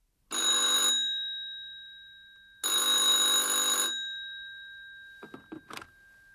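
A telephone rings twice with a bright, buzzing electronic trill, each ring lasting about a second, followed by a few soft clicks and clatters as the handset is picked up and a doctor answers the call.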